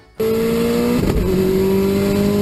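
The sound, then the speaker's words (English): A turbocharged car engine revs hard, its tone climbing steadily, dipping briefly as it shifts, then pulling up again. Loud and continuous, with no voices. “you can't really drive it with any sort of real throttle without it making some noise, right? Yeah. And you can hear the turbo, you can hear it.”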